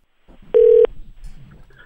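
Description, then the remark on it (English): A single loud, steady electronic telephone tone sounds for about a third of a second, set against a soft rustling background, as a phone call is placed to comedian Chris Garcia. “And uh, yeah, I got him on the phone for a second.”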